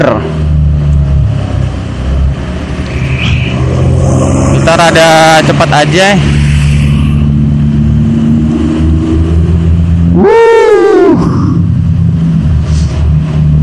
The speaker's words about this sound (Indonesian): ini depan gua ada ini ada apa uh, pickup ngangkat buah pisang banyak banget nih kenal potnya kenceng bener